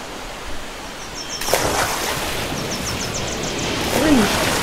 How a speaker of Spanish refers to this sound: está súper fría el agua. No te alejes mucho porque las olas están un poquito altas.